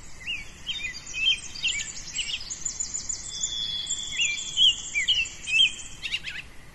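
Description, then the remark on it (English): A lively dawn chorus of many birds singing and chirping at once along a forest trail at about 6:16 a.m. as the birds wake up, overlapping trills and whistles, with a soft low rumble of ambient background and no voices. “We head off down the trail and the birdsong just comes alive.”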